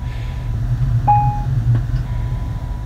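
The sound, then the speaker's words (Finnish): Steady low rumble of a moving passenger train heard from inside the carriage on an Interrail trip from Milan to Turin, with a brief electronic tone chiming around the middle and a faint click or two, no voices. “Olen nimittäin juuri nyt Interreilillä ja matkalla Milanosta Torinoon.”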